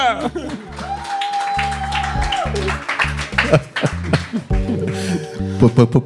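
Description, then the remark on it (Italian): A burst of applause with scattered clapping and crowd noise, mixed with bright, sustained musical tones and some voices, staying fairly loud throughout. “Applauso!”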